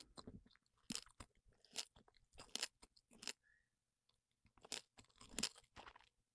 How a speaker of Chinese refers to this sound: 我觉得很有特点，它有那个，你有听到那个呲啦啦啦的声音？怎么会拆薯片？